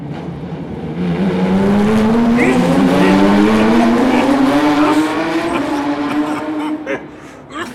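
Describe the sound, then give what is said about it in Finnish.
A loud, steady engine roar with harmonics rising in pitch over several seconds as race cars speed past on a track, sustained before tapering off near the end. “Nämä autot puskee varmaan jotain häkkää täällä. Ne sun silti voi olla huonommin kuin mulla. Venäjä ne tulee ohi, pakko tsiikaa.”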